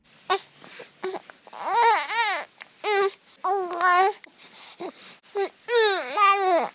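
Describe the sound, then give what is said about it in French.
An infant babbles and fusses in loud bursts, its rising and falling cries breaking into whiny vocal sounds with short pauses between them. “Des cris, des pleurs, des soupirs, mais aussi du jazi c'est-à-dire des sons qui résonnent et qui ne sont pas vraiment identifiables.”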